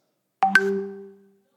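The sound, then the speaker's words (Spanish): A short two-note WhatsApp message notification chime on a phone, two quick bright tones that ring out and fade over about a second, fairly clear, with no talking. “Ese WhatsApp”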